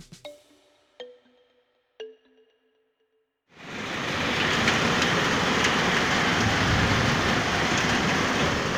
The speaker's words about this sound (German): Ein starkes Gewitter überquert uns gerade. Hagel hämmert gegen die Dächer, Blitze spalten den Himmel und lassen krachenden Donner folgen. Düstere Wolken sind aufgezogen und lassen kaum noch Licht hindurch.